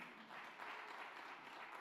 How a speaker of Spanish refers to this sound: ¿Cuántos dicen amén y cuántos le dan un aplauso fuerte?